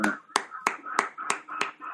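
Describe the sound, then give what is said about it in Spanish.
Applause for Chile in a steady, even rhythm: about six sharp, loud claps roughly a third of a second apart, with a faint voice murmuring beneath them. “Siempre Chile, un aplauso.”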